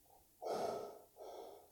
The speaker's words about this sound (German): In die Hand zum Beispiel. Genau das Hyperventilieren, runterholen eben, ja, durch dieses in die Hand atmen und so weiter.